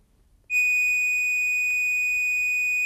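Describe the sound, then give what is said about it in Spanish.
A pure, steady sine-wave tone switches on abruptly after a brief quiet moment and holds at one constant pitch and loudness until the end, clear and unbroken. “Es una onda pura, es un sonido perfecto y su frecuencia es la que marca su tono.”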